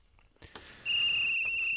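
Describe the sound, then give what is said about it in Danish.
A long, steady, shrill whistle blast begins after a couple of soft thumps and holds at a constant pitch until the end, loud over a faint background hiss. “Det var efter fløjtet, men du må ja, godt lige ja, bare komme jeg, med.”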